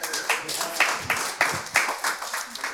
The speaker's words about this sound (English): Round of applause.